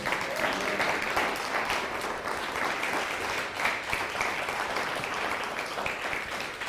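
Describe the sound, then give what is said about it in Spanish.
Loud, sustained applause from an audience, a dense, steady wash of many hands clapping that holds at a fairly even level throughout. “Dale un fuerte aplauso.”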